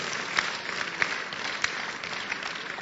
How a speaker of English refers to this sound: Now, if you want to clap, clap.